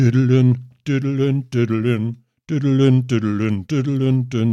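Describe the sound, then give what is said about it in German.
A voice vocalizes a rock guitar riff with repeated nonsense syllables, forming a chugging, rhythmic melody in short bursts with brief gaps, fairly loud. “Das war irgendwie ….”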